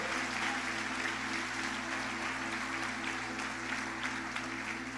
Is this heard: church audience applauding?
yes